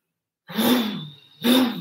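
Loud snoring in a tunnel: two harsh, rasping breaths with a low throaty rumble, the second starting right after the first fades, with no talking.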